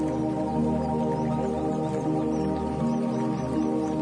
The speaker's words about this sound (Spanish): El agua. Te, tengo que las peceras son como relajantes cuando tienen como su parte de la, como el filtro, güey. Sí. O sea, o Prende un las velas, un aroma, acostado. O sea, sí es muy relajante, güey.